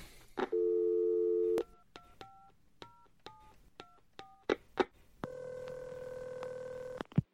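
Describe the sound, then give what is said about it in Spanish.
A phone's dial tone hums briefly, then a quick run of about eight keypad beeps, a couple of clicks, and a long steady ringing tone on the line, with no voices, as a call is placed to Nadella of Microsoft. “Espera un momento que llamo a Nadela.”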